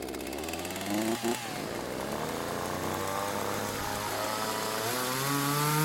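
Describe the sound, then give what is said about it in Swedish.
Several chainsaws, run by a team of about seven or eight workers positioned in small groups in the trees, rev together in a steady, loud roar, their engine pitches rising and falling and overlapping throughout, with brief throttle bursts near the start. “I bakgrunden har kollegorna börjat varva motorsågarna.”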